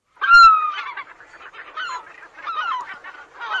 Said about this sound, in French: C'est extraordinaire parce que à l'instant on entend un cri de goéland, on a, on sait qu'on est à la mer. On y est.